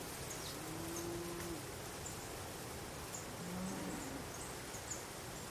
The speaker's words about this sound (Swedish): Det känns härligt att sitta här, omgiven av naturens alla läten och dofter. Råmandet från korna.